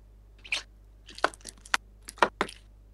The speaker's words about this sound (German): Was machst du? Ich habe getrunken. Also Wasser. Okay. okay. Man hört nur. Ja, das ist. Ach so, oh, Plastikflaschen? Glasflaschen, Alter.